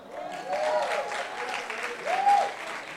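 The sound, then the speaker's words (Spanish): A crowd of women applauds for the Lord, clapping steadily for about three seconds, a dense patter of clapping with a couple of rising vocal whoops or cheers swelling over it. “A ver, mujeres, denle un aplauso al Señor.”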